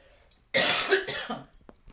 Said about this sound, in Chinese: 所以等一下我咳嗽。